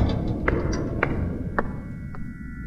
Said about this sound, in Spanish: El sonido de unas pisadas lo interrumpieron. Sonaban como si provinieran de las escaleras, detrás de aquella puerta metálica.